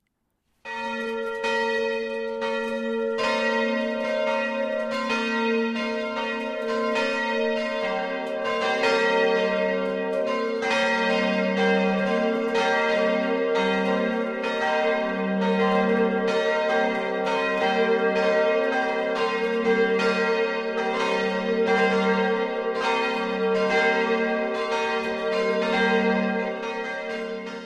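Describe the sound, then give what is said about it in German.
Church bells of St. Martin parish church in Tauberfeld, Eichstätt district, Upper Bavaria, ring a sustained noon peal, several bells overlapping in a dense, continuous clangor with rich ringing overtones, steady and loud throughout, with no voices. “Das Mittagsläuten kommt heute aus Tauberfeld in Oberbayern.”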